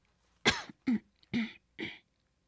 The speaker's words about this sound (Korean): 그런데 바로 그때 이번에 어디선가 누군가의 헛기침 소리가 들려왔으니